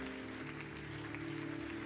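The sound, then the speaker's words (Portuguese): An audience claps steadily to the Lord, a dense wash of many hands applauding at a fairly even level, with a sustained low musical tone humming underneath throughout. “Aplauda ao Senhor e diga graças a Deus.”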